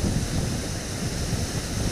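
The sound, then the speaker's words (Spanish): A steady wash of ocean surf at rocks mixed with warm, breezy wind rumble, continuous and fairly loud throughout, with no voices. “y llegar hasta aquí, sentir esa agua, esa brisa, templado.”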